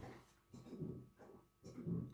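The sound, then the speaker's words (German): A dog retching and vomiting onto the floor, with three rough, throaty heaves in a steady rhythm, fairly faint, with no voices over it. “Kotzt der Hund gerade?”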